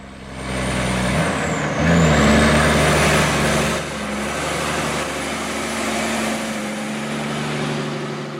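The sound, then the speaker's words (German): A heavy truck heading toward Adelaide rumbles slowly through the town of Docker River in central Australia, with a low, droning engine, a high whine and a brief hiss like an air brake near the start, then a steady churning roar. No one speaks. “den einen oder anderen Lastwagen, der sich Richtung Adelaide durch den Ort schleppt”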